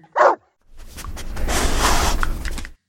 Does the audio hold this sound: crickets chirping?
no